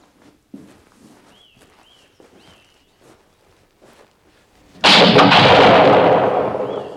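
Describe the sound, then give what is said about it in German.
Soft footsteps and faint chirps in a quiet outdoor setting, then a single loud pistol shot in a duel cracks out and rolls on in a long, booming echo. “Bei drei dürfen Sie bis zur Barriere vorgehen. Spätestens dort muss geschossen werden.”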